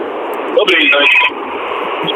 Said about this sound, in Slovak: Áno. Trošku väzbite, tak choďte ďalej od reproduktoru, ak počúvate.